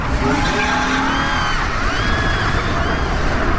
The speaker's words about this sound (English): Now pushing 100 miles an hour on a dark road, they were worried about crashing or flipping the car.